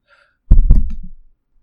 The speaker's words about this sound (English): I, I tapped my pop filter. I don't know if that came through.